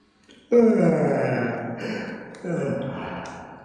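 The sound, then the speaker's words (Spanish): A loud, exaggerated yawn from someone who has just finished reading a newspaper, folded it and set it aside: a long, drawn-out groaning breath that sags in pitch, followed by a second shorter stretch, with no talking. “Por fin, perfecto termina de día el periódico, lo dobla, lo deja a un lado y bosteza con descaro.”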